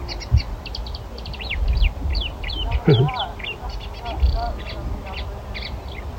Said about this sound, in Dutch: Terit, terit, terit, kalkiet, kit, kit, kit, De kleine karak, karakiet.